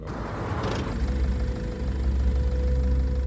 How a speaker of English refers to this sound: Less than two minutes later, a car races onto the beach, right on the sand